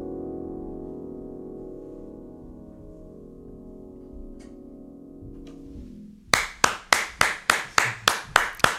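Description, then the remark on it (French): A sustained musical chord rings and fades, then audience applause breaks out as loud, evenly spaced rhythmic clapping, around nine sharp claps in steady time. “Il y toute la France en hein, derrière mes applaudissements.”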